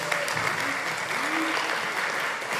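A crowd claps steadily as a hand of appreciation for a person, a dense, continuous burst of applause that fills the whole stretch at an even, fairly loud level, with faint voices murmuring underneath.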